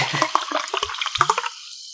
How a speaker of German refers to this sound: Hätte ich jetzt eigentlich drin gelassen, wenn so, wenn du so einschenkst.